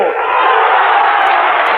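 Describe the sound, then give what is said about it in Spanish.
A large crowd of gathered communists cheers and applauds after a speech by Santiago Carrillo, a loud, dense, unbroken roar of voices and clapping that holds steady for the whole couple of seconds. “Bueno, pues ha tenido un, buen estreno como orador Santiago Carrillo, a juzgar por la efusividad, por los aplausos de, de los aquí congregados.”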